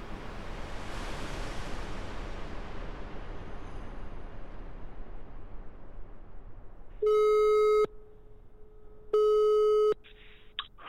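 A steady wash of rushing noise, like surf, fades out, then two loud, sustained telephone ringing tones of a call placed from Denmark sound about a second each, separated by a short pause.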